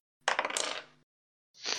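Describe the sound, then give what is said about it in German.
Dice clatter and rattle across a table in a quick burst of small clicks, rolled for an investigation check in a game, then a second shorter roll follows after a brief pause. “Da habe ich, ich hab auch vier gewürfelt aus Investigieren.”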